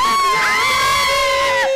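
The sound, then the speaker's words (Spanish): A group of women shout and cheer together in loud, sustained high-pitched cries that rise and fall for nearly two seconds, continuous with no pauses. “grito de mujeres.”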